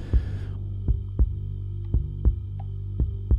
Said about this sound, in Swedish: Direkt där så alltså, bara jag fryser till is liten, en liten, liten stund där och jag, jag kan höra varenda hjärtslag som jag, som jag liksom som, jag, som, som kommer och det känns som en längre tid emot vad det faktiskt är.